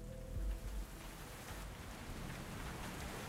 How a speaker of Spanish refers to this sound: Desde debajo de un techo de lámina se vuelve a escuchar cómo el agua cae. Ha comenzado una nueva temporada de lluvias en Guatemala.